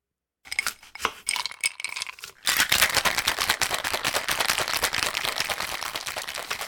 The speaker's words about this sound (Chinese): 它就是有很多录音录起来的声音，然后让你模拟的好像你在 bar 里面。我先放一个，这个是在 bartender 正在工作的声音哈。